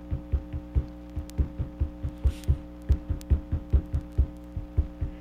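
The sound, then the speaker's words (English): A low, thudding drum beat repeats in a steady looping circular rhythm, about four hits a second with occasional doubled strokes, played over a faint constant hum. No one speaks. “Yeah, it sounds great. So okay, good. So it has keep some going. Circular rhythm.”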